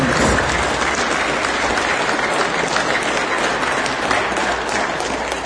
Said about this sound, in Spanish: Y también, por último, quisiera pedir un fuerte aplauso, para todos los hermanitos que estén presentes por su interés. Gracias, hermanitos. Un fuerte aplauso.